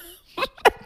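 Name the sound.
sneeze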